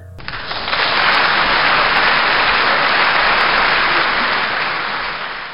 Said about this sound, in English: Oh, thank you for that nice applause.